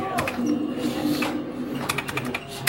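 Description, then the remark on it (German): Busy arcade machine noise: rapid mechanical clicks and rattles over a steady low hum, with a few faint electronic beeps, continuous. “Aber das, das ist so wieder so ein Hintergrundgeräusch hier. Dieses ganze Piepen und Blinken.”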